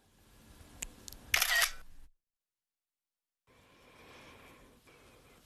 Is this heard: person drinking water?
no